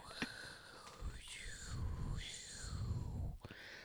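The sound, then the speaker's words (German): A person makes soft, breathy whooshing and hissing sounds with their voice, rising and falling in gentle sweeps, imitating flowers in the wind. Fairly quiet, no words. “Deswegen stell dir jetzt vor und vermittel das bitte mir und unseren Zuhörern, wie Blumen klingen. Blumen im Wind.”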